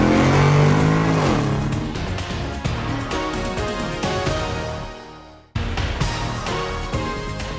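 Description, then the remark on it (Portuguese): A car engine revs loud as the car is shifted into first gear, its pitch climbing as it pulls away and accelerates, then briefly cuts out before roaring back for the last couple of seconds. No one speaks. “engata a primeira e vambora!”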